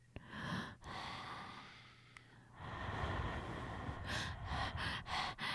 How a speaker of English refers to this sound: Listening to certain types of music, and then listening to a person blow or exhale into a microphone.